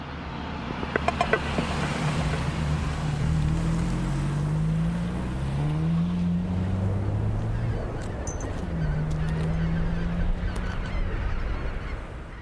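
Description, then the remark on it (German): Roadside ambience on a rural country road in Bunde, with fields on both sides, many wind turbines and passing flocks of birds at sunset: a steady open-air rush with low, wavering engine drones passing by, a few sharp clicks early on, and faint high chirps. “Ja, gerade in Bunde angekommen, stehen wir an der Landstraße. Links und rechts Äcker.”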